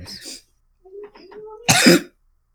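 A short, rough cough opens, then a strained wheezy breath with a faint tonal whine, followed by one loud, explosive cough as someone chokes on saliva.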